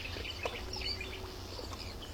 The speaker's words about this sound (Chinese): 醒来后，窗外响起鸟鸣声。